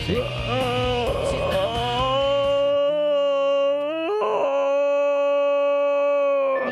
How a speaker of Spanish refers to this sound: Ese es un bostezo. Sí. Mañanero.